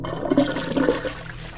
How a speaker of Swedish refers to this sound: Rätt som det var, kan jag intyga, som låg närmast toaletten, så hördes ljudet av en spolning.